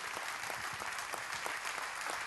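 An audience applauds the Lord in the evening, loudly and steadily, a dense wash of many hands clapping together with no voices standing out.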